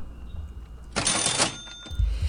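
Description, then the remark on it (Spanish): A cash register rings out once, a bright metallic ding with a burst of clatter about half a second long, followed by a soft low thump as the drawer settles. No one speaks. “Venga caja registradora.”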